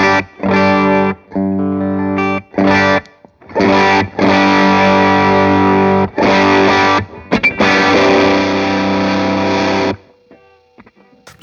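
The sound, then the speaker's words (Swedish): Electric guitar played through a distortion pedal without tone control at relatively high gain: loud, heavily distorted sustained chords in bursts separated by short stops, then a long ringing chord that fades out. “nu är det inte riktigt det den är tänkt för, men som diskpedal utan tonkontroll så låter den så här med relativt mycket gain.”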